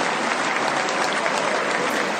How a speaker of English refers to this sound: We are told he should be arriving any moment now, and here is Judah Maccabee entering the Great Hall. He's being applauded by friends, supporters, and even some members of the media.